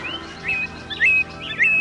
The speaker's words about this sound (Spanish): Los siete colores, los picaflores y todas las demás aves que alegran con sus bulliciosos trinos a los habitantes de la selva amazónica, viven tranquilos y contentos, llenando el paisaje de color y sonido.